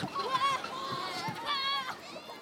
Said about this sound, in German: Hört, wie die Wellen vom nachgelegenen See leicht gegen das Ufer plätschern, hört das Stimmengewirr und das Lachen der Leute rundherum und seid einfach glücklich.